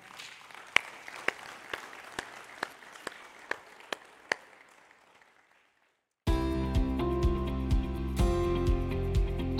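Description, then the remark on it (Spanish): An audience gives a loud round of applause to the Lord, a dense wash of clapping with some sharper individual claps standing out, fading away after about six seconds; loud music with a strong beat then starts abruptly. “Quiero que le dé un aplauso fuerte al Señor.”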